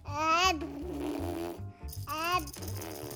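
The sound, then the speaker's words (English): A baby girl blows a wet, buzzy raspberry while drooling onto a toy train, with two wavering voiced bursts over a steady low sputter that runs through the whole stretch. “she blows a raspberry and drools on my toy train.”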